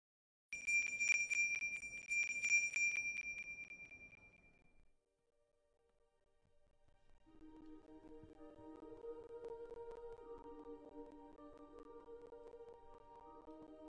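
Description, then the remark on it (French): A small sleigh bell is shaken in quick, bright jingles for about four seconds, clear, then rings out and fades before soft, gentle music swells in. “en fait son gros lot, il le secoue et il l'entend par magie”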